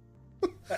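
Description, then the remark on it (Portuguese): A short sneeze after a moment of near-silence, a sharp intake-like burst followed by a second breathy burst, not very loud, with no talking. “Saúde. De novo.”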